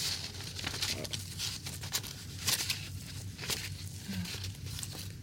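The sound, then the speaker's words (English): Crackly peeling of something sticky pulled away from paper, a continuous ripping texture broken by sharper snaps and crinkles over about five seconds, with no voices. “Oops, it stuck to paper.”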